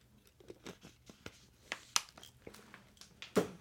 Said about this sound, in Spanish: Voy a tomar un poquito de agua para suavizar un poquito mi garganta.